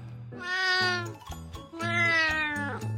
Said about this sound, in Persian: از زیر کمد گربه کوچولو خودش رو بیرون کشید و میو میو کرد